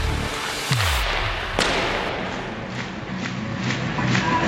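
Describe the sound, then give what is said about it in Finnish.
Sharp booming fireworks bangs ring out in the Raksila ice hockey arena as Kärpät skate onto the ice for a game against JYP: a deep thud followed by a crack and several fainter pops trailing off over a steady crowd-like roar. “Ilotulitteiden myötä puolen Suomen joukkue Mustissa pelaava ollut kärpät eh, liukuu Raksilainen jäälle.”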